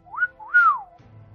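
A person whistles a two-part alert signal: a short rising note, then a longer tone that swoops up and glides back down. No one speaks, and a low rumble follows.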